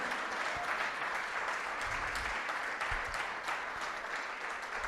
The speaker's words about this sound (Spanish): Fuertes aplausos a Él. Aleluya. Gloria a Dios. Gloria a Dios.